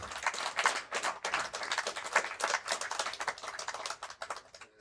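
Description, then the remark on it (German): An audience applauds a quiz contestant called onto the stage after a correct answer, steadily for about five seconds, a dense, crackling wash of many hands clapping at once, fairly loud, easing off slightly toward the end with no voices. “Einmal auf Einen die Bühne. großen Applaus.”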